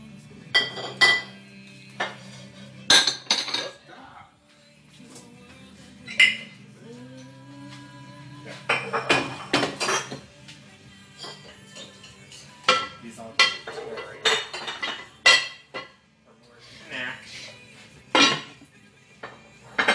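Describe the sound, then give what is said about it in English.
Plates, pots, pans and cutlery clink and clatter in irregular bursts as dishes are unloaded from a dishwasher and set down, with brief pauses between clusters of sharp metallic and ceramic knocks. “All that shit should, should have been dry. The dishwasher did shit out so I can put the pans in.”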